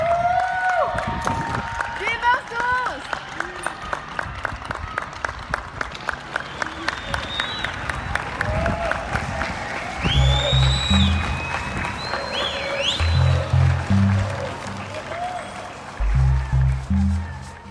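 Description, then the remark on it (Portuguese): Scattered applause from many people on home balconies and in yards, clapping at a set time for health workers, with rhythmic clapping, cheers and whistles echoing across an open outdoor space, and some low bursts near the end. “Nos últimos dias, vem crescendo o movimento de aplaudir com hora marcada os profissionais de saúde, seja da varanda de casa, do quintal, de onde der.”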